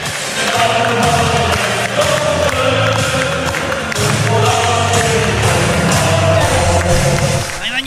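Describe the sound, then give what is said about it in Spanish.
Hotel workers clap and cheer loudly and continuously as the Tigres team arrives by bus at the hotel, with a busy mix of overlapping voices throughout. “Llegó mi ahí llegó el equipo, salieron todos los trabajadores del hotel a aplaudirles, ah, aplaudir el himno de Tigres, Llegan el autobús al hotel a descansar y toda la gente le aplaude.”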